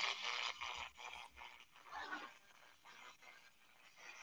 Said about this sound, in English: So that's a typical noise that has static and everything in it. And then you you squelch it down. So you're just kind of hearing the static. And as you notice, you're not hearing radio broadcast at all, which is great.